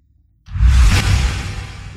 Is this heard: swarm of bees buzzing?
no